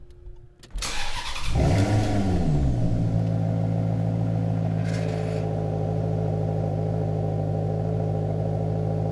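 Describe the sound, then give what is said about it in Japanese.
The Ferrari-built 4.7-liter naturally aspirated V8 engine of a Maserati Quattroporte Sport GTS, made at the Maranello factory in Italy, cranks and fires up, flares in a brief throaty rev, then settles into a loud, steady, rumbling idle with no one speaking. “エンジンはイタリアマラネロの工場で作られたフェラーリ製4.7リッター自然吸気 V8 エンジンから流れ出すまるで管楽器のようなサウンドをお楽しみください。”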